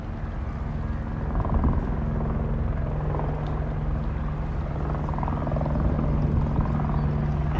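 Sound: helicopter passing overhead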